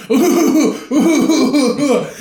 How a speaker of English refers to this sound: trying to like cover it up with some coughs.